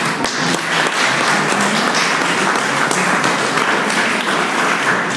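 An audience applauds district administrator Jörg Denninghoff at the Burggespräche event in Nassau, steadily for several seconds, a dense crackle of many hands clapping at a fairly loud, even level with no voices over it.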